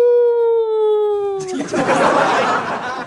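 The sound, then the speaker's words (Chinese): A human voice imitates a wolf howl: one sustained, slightly falling, harmonic-rich cry lasting about a second and a half, then it breaks off into a loud, noisy burst of laughter. “太猛了，明显你一唱歌，狼都来了，特狠。”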